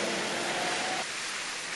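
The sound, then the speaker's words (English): An audience claps hands together in a dense, steady wash of applause with no individual claps standing out, easing slightly in fullness about halfway through. No voices are heard. “Thank you, those of you are clapping.”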